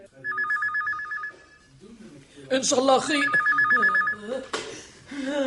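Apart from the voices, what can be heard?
telephone ringing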